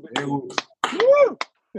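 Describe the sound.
A few sharp, crisp hand claps land at an uneven beat as people clap along, mixed in with a person talking, the claps cutting through briefly between and over the voice.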